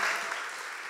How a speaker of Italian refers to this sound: Gloria a Dio, facciamo un applauso a queste persone che si stanno preparando.